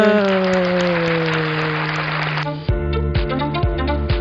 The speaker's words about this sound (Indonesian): Tepuk tangan.